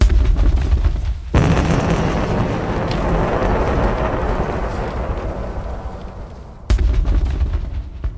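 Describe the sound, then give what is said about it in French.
A loud explosion sound effect depicting the explosion of the sun seen from space hits abruptly, then rolls into a long, deep rumbling roar lasting several seconds before cutting off, with a heavy low-end boom throughout and no voices. “Et depuis l'espace, assister à l'explosion du soleil.”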